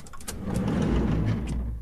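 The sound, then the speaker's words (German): A door is opened with a few short clicks and rattles, then a steady low rumble from outside swells in and fills the rest. No one speaks. “Warte, ich mach kurz die Tür auf.”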